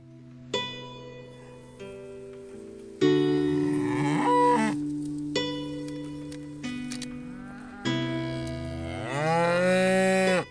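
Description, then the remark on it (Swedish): Several cows moo loudly on a farm in Sweden that keeps around 100 cows and calves grazing about 150 hectares, their long, drawn-out calls overlapping one after another, some sliding up or down in pitch, with no talking. “Under året finns runt 100 kor och kalvar, cirka 70 får och lamm.”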